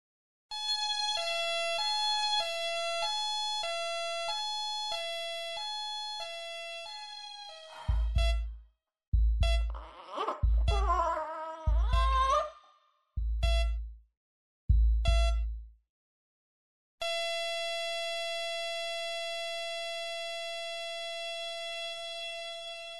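A two-tone ambulance siren alternates high and low for several seconds, then breaks into choppy bursts over heavy low thumps, and finally settles into a long, steady unbroken tone.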